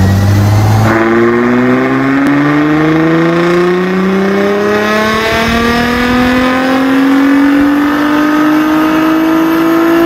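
A Nissan Skyline GT-R sports car engine roars loud, its pitch climbing steadily as it accelerates through a long continuous pull, with no one speaking.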